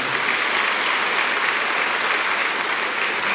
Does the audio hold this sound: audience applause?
yes